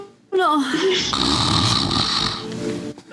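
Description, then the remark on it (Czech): A person imitates loud snoring: one long, rasping, rattling snort starting with a wavering vocal tone and lasting nearly three seconds, forceful, then cutting off abruptly. “Um, máte pocit, že to je spíš tak jako krápání a vidíte, že je Huldar takový jako schoulený do takový deky před uh, tím ohništěm a spí a dopravdy hlasitě ah. chrápe.”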